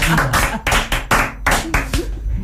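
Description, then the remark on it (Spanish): An audience breaks into applause, a dense, loud run of clapping with strong rhythmic pulses about every half second, while a few voices murmur faintly underneath. “No, este aplauso es para vos.”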